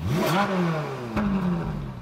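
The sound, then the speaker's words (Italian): A powerful McLaren F1 sports car engine revs up and then winds down with a whirring, falling pitch, loud, then holds a steady drone for the rest of the moment; no one speaks. “Musk, per affermare il suo brand tra gli imprenditori della Silicon Valley, comprò e si fece recapitare con un bilico una macchina sportiva, la F1 della McLaren”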